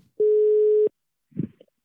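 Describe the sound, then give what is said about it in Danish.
A single steady ringing tone from an outgoing phone call, lasting about two-thirds of a second, clear, followed by a short muffled clatter as the line seems to connect. “Så jeg, ringer direkte videre til øh, en mere, der har budt ind, at dronningen vippede det her, for vi kan få en lidt bredere forståelse for, hvad, der, hvad fanden der, der foregår.”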